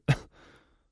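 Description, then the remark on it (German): A single sharp cough bursts out, followed by a softer, breathy exhale that trails off quickly. No speech accompanies it. “Wie buchstabierst du ein Husten?”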